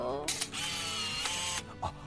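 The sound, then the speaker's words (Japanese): The shutter of a small film camera with no film loaded is released with a sharp click, followed by the whirring mechanical grind of its motor winding the film forward, with a voice speaking in the background. “はい、またあの音がね結構うるさいんですよ、シャッター切ると今、フィルム入ってないんでシャッター切ってみますけど、はい、この巻き上げ音、はい、今、巻き上げ音ってものがないわけじゃないですか、そうですそれがもガシャウィーとかいうのが”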